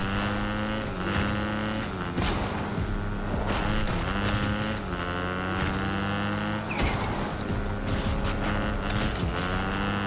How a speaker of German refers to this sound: Ehrenmann, der gibt mir an mit seinem Motorrad.